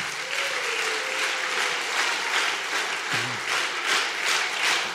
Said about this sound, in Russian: Дайте, пожалуйста, ему большие аплодисменты.